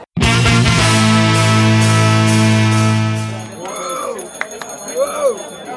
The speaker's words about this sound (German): Irgendwer läutet hier die ganze Zeit mit seiner Glocke.